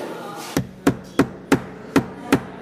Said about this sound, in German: Und jetzt haust du mit dem Hammer ein paar Mal rein.